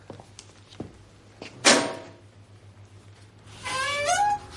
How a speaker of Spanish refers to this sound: La puerta.